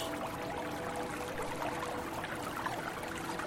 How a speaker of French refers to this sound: Vous pouvez maintenant vous asseoir ou vous allonger euh, au sol, vous fermez les yeux, écoutez ce petit ruisseau à côté duquel notre groupe s'est installé.